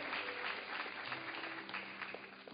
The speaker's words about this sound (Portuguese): Aplaude Ele, aplaude.